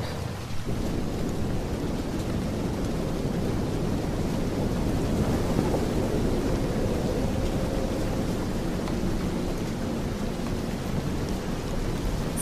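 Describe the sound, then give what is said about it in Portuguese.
Steady, dense approaching rain with low rolling thunder rumbling underneath, holding at a constant moderate loudness throughout with a breathy wind-like hiss. No voices. “Deixe que o som, o som da chuva que se aproxima, permeie todo o seu corpo, todo o seu sentir.”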